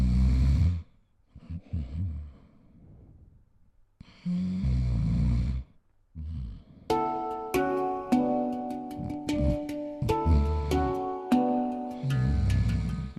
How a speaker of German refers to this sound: Sein Fazit? Ich bin nicht der wildeste Schnarcher. Über die Jahre muss ich aber feststellen, dass ich mehr schnarche als noch vor zehn Jahren. Also es ist mehr geworden.